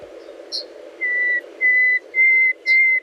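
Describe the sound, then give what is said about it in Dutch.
A nightingale sings four long, pure whistled notes at an even, unhurried pace, each growing louder, with a couple of brief high chirps in between over a low steady background hum. “Misschien een beetje een atypische nachtegaal.”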